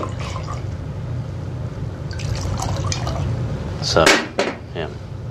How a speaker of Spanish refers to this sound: Él abre como una botellita de champán. La muchacha está sentada al lado de él. Él está sirviendo el trago.